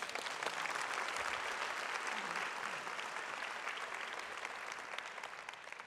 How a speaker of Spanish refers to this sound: Y la iglesia dice, Amén. un aplauso. Thank you guys.